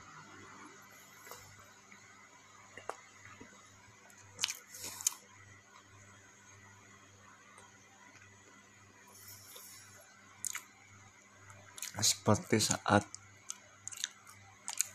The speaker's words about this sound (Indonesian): aku mengunyah makanan ini, setiap ada rasa dan ada kenikmatan yang diberikan sungguh nikmat